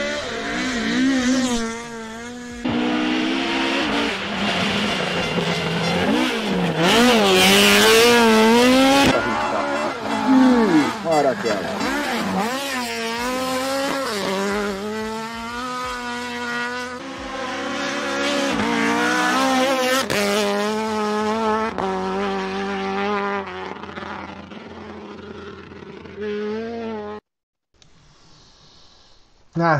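An old Escort rally car's engine revs hard and continuously, its pitch climbing and dropping repeatedly as it goes sideways through corners and goes light over a small crest, loud, before cutting out abruptly near the end.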